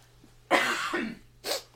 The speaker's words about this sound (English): Excuse me, I need to cough.